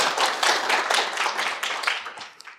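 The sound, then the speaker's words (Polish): An audience applauds for Malcolm Forbes, a dense, bright wash of many overlapping claps that holds steady for a couple of seconds and then thins and fades out. No one speaks. “Ja poproszę o brawa dla Malcolma Forbesa, bo to jest bardzo moim zdaniem prawdziwe.”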